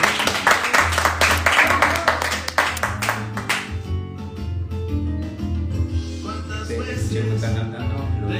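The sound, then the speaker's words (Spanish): Audience applause at a Fundación Claves 'Mentes Conscientes' event in Mendoza, Argentina fills the first few seconds, a dense wash of many hands clapping, then thins out as steady background music takes over. “Así que un aplauso para que nos a acompañando.”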